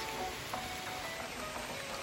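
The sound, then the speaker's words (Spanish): Rain starts to fall and patters down in a soft, even hiss, a wash of drops with faint tonal hints in the background and no voices. “Ya sí, comenzó a llover.”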